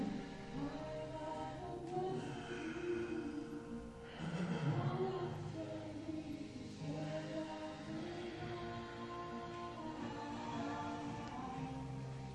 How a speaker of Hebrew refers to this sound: כלב ביט למעלה בשאיפה, ולאחור בנשיפה. חמש נשימות.